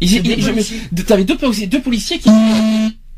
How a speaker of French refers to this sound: Oui, ça c'est très sympa comme comme comme bruit. Je sais pas ce que c'était. Mais... C'était c'était très original au niveau sonore d'ailleurs. C'était un téléphone.